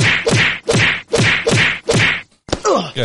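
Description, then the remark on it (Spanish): A slap sound effect: a rapid, steady series of about half a dozen loud, sharp slaps, each a crisp smack with a brief rustle, followed by a short, pitched groan-like vocal sound at the end. “Aquí vamos a dar unas toñejitas Pues mira, para la secretaria de Sala de Paz de Santurce.”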